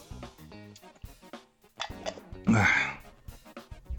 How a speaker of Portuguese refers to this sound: Às vezes tá um, eu é, tô, tô tomando água. Tá, eu tô fazendo barulho aqui de, do copo aqui.